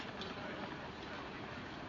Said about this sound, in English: I heard the sound of the steam train that's over by the M shed at, just before we started recording.